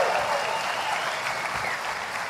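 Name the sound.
audience applause and cheering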